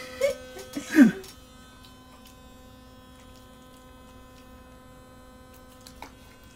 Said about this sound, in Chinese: 哎、我开的这是电动牙刷，大家不要误会我开别的东西。